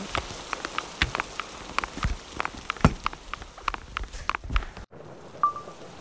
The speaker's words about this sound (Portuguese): Já faz umas um, duas horas que está chovendo lá fora.